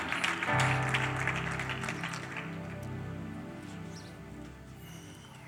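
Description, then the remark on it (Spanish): An audience applauds for the Lord in a burst of clapping that swells early and then fades, with sustained keyboard or organ chords continuing underneath. “Denle un aplauso al Señor y tome asiento.”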